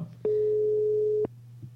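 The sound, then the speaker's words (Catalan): A phone ringback tone sounds once as a call is placed, a steady electronic beep lasting about a second, clear, over a faint low hum with no one talking. “Mira, mira, està sonant ja, eh? Està sonant. Aviam si la Teresa el pot agafar.”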